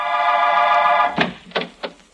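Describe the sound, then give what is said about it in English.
A harsh, steady electric buzz drones for about a second after a button is pressed at an apartment house on Powell Street, then stops as the door of apartment 221 unlatches and swings open with three quick clunks. “I entered, went up the stairs to 221. The door opened.”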